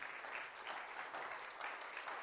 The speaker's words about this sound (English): Well, give the Lord a hand clap of praise.